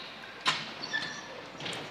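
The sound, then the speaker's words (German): The automatic doors of a Munich U-Bahn subway train shut with a sharp thud, followed by faint mechanical hissing and tonal chimes in a busy, reverberant station ambience. “Wenn die Türen zu sind, sind sie auch tatsächlich zu automatisch.”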